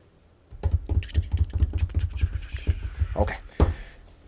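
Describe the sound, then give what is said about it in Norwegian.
A gentle drum roll of quick, even taps, fairly soft, running steadily for a few seconds before ending with a slightly louder final hit. “Trenger du trommevirvel? Nei, det blir så mye bråk, men en liten okay. sånn forsiktig en.”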